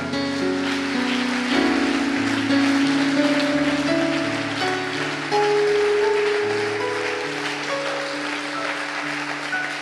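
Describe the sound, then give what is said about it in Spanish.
A church audience claps for the Lord in a dense, steady wash of applause that lasts the whole stretch, with sustained keyboard chords and a slowly stepping bass line playing underneath. “Denle un buen aplauso al Señor.”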